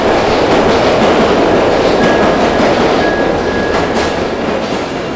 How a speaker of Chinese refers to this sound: 电车。突然，快速的从他面前划过，